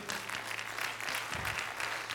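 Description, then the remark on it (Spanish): An audience applauds steadily, a dense patter of many hands clapping at an even level throughout, with no voices standing out above it. “Espero que ese aplauso sea, hermano, eh, en obediencia a lo que le voy a decir.”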